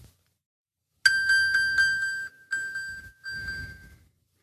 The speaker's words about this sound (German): kannst dein äh, Telefon anpingen.